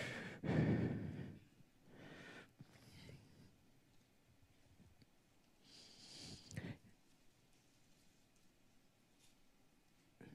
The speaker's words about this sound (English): Oh, I hear pages turning. I haven't heard that in a while. Good for you.